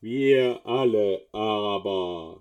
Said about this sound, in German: Ich habe extra hier einen Topf für euch mitgebracht. Ja, und wenn man den Topf so über das Gesicht stülpt, also über den Kopf zieht, dann hört sich so an.